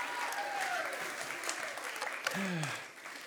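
An audience claps for a band steadily and fairly loudly for a few seconds, a dense wash of applause, with a couple of falling whoops or cheers rising briefly above it.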